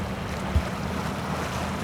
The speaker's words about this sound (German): Oh, jetzt kommen so ein paar Wellen, was hört es da? Ist schön.